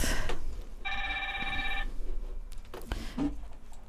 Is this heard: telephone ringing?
yes